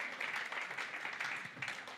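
An audience applauds steadily, many hands clapping in a dense, even wash of sharp patter that holds at a moderate level for about two seconds.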